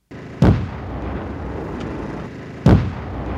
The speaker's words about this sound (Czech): To u nekontrolovaného výbuchu jde o život. V tomto případě lahev odmrštil 22 metrů daleko. Někdy ale její části můžou letět i 150 metrů.